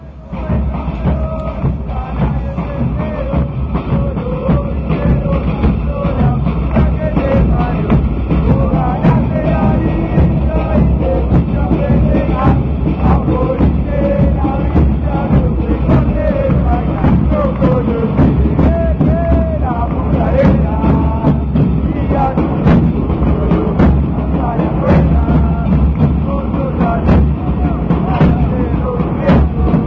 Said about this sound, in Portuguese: Então a gente vai ouvir só rapidinho um cântico da torcida do Penharol em provocação ao Cerro, só para entender um pouco esse universo.